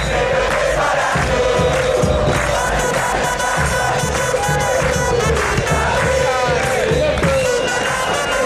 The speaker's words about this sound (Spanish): bueno, escuchamos a la hinchada de Aldo que eh, se la sabe mejor que yo de memoria y aparte está buenísimo el tema.